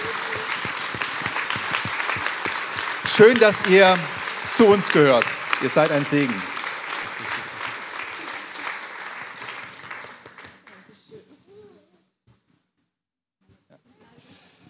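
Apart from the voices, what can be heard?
audience applauding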